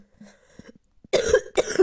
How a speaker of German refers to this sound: Walla, Digga, warum huste ich so viel? Ich schwöre, richtig nervig.